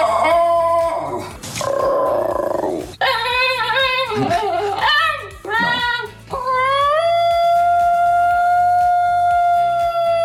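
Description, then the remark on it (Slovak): An excited Basenji dog's loud, warbling yodel rises and falls in pitch, breaking into yelping cries and sliding wails before settling into a long, steady siren-like howl, with no talking. “On jodluje, alebo kričí, alebo sa dokonca mení až na sirénu, alebo aj všetko naraz a potom to môže znieť nejako takto.”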